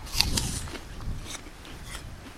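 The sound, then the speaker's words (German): A crisp bite into an apple gives a couple of sharp, crunchy snaps, followed by softer, wet chewing crunches that fade over the next two seconds, with no talking. “Ja, der ist auch knackig. Der klingt nicht nur so”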